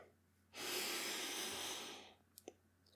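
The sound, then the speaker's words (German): One long, deep, airy breath drawn in, loud and steady for over a second before fading, followed by a couple of small clicks. No one speaks. “Einmal tief durchatmen.”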